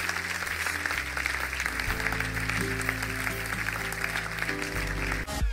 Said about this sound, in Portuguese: Dá uma salva de palmas a estas pessoas.